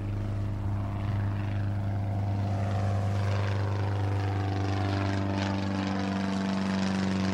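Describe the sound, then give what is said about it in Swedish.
A propeller bomber plane flown by an American lieutenant passes right overhead and circles for a while. Its deep engine hum and harmonic tones stay loud and continuous for the whole stretch, with no voices. “Plötsligt hörs ett ljud över dem. Han kisar och kollar uppåt plan flyger precis över dem.”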